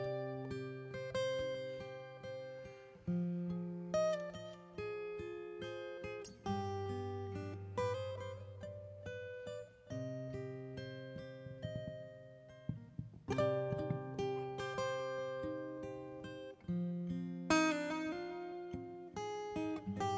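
A song plays on its own, a full instrumental arrangement with steady bass notes, bright sustained chords and rhythmic accents, continuing at an even level without any talking over it.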